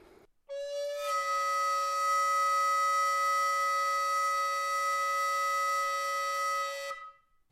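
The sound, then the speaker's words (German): A recorder sounds two tones at once in one long, steady, shrill note of about six seconds, with a bright, buzzing edge from the clashing pitches. Nobody speaks. “Aber man kann sogar auch mit der Blockflöte noch einen doppelten Ton machen, dass man zwei Töne gleichzeitig hört.”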